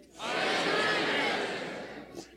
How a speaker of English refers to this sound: Now let me ask you a question. Did you hear anybody around you but the name you were shouting? No. No.